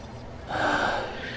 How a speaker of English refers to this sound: Yep. Uh, I'm just sort of panting.